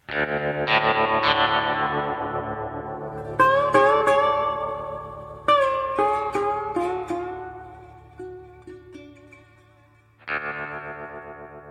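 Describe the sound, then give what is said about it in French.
A short synthesized jingle with heavy effects: bright, distorted tones and bouncy, echoing plucked notes in a few bursts over a sustained low drone, with no voices. “Vous, vous écoutez le Sonal.”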